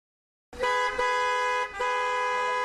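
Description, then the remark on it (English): Car horns blare loudly and continuously after a brief silence, with a short dip and a second sustained honk, in busy traffic on a Friday evening. “What a busy traffic on this Friday evening!”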